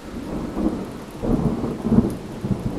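Steady rain falls while low thunder rumbles in rolling swells, deep booms rising and fading over the continuous wash of the downpour. No voices.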